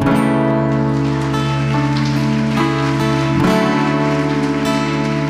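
A church audience applauds the Lord steadily for several seconds, a dense crackle of many hands clapping at once, with sustained keyboard chords holding underneath and no voices.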